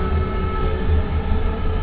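A packed crowd at La Fonteta basketball arena roars during a game against Real Madrid. The noise is a dense, steady wash with a heavy low rumble, holding at a constant loud level throughout, with no clear voices standing out.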